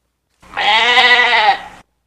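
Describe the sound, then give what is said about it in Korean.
A single black goat bleat rings out loud, a wavering, nasal cry lasting over a second with a trembling, vibrato quality, alone with no talking around it. The goat was grazing on grass and had just been patted on the back by a person. “선배가 등을 두드려준 건 흑염소였어요.”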